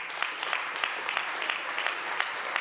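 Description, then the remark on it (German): An audience applauds the worship team, a steady dense wash of many hands clapping at an even level with scattered sharper claps standing out, and no voices heard over it. “Was wäre gewesen, wenn das wunderbare Lobpreisteam, was heute uns so toll in die Gegenwart Gottes geführt hat, gibt mal einen Applaus dem tollen Lobpreisteam heute.”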